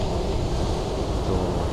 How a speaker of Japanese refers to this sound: 昨日こちらはですね、すごい大雨で、今日になって本当にいい天気、カラッと変わったんですけど、えー、ちょっと雨が多かったせいか、波がすごく高くて、いつもより音が、波の音が大きいです。